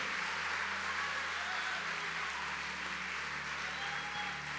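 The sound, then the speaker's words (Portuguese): An audience claps steadily for several seconds, applauding the name of Jesus, a dense, even wash of many hands with no single claps standing out, over a low sustained hum and no talking. “Se você crê, aplauda o nome de Jesus este lugar.”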